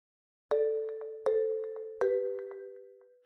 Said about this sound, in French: Il va pourtant falloir qu'il prenne ses jambes à son cou, car à peine a-t-il fini de s'extraire de son étagère que l'alarme du magasin se met à retentir dans la nuit.